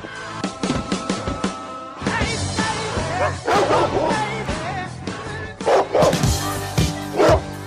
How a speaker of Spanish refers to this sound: Aquí empieza a ladrar un perro negro.